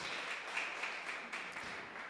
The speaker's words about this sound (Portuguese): Então você pode aplaudir o Senhor aí. Glória a Deus.